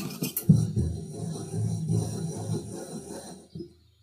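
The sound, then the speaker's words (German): Wine glasses left standing on a tabletop and turned clockwise at full speed, producing a steady, low, rasping rub of glass bases grinding over wood for about three seconds, with a few soft knocks at the start and end. “Jetzt nehmt das Glas und dreht einfach, lasst es am Tisch stehen und dreht genauso volle Pulle mit dem Uhrzeigersinn.”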